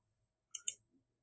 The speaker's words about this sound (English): Sorry if you hear keyboard clattering in the background. I'm just googling.